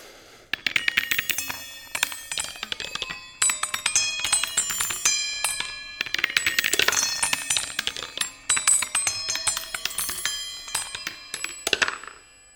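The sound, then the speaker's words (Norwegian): A wooden ball, dropped at regular intervals, tumbles down through the tiny cymbal-like chime elements of a wall sculpture, striking a rapid, irregular cascade of bright ringing tones that shimmer and overlap, forming a delicate random melody with no voices. “Og med jevne mellomrom så faller en treball ned, som spiller og danser seg ned gjennom disse klangelementene og lager en vakker tilfeldighetsmusikk.”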